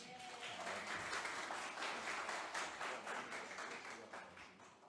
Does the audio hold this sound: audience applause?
yes